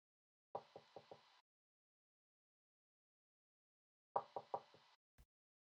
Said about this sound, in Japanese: ドアをノックする音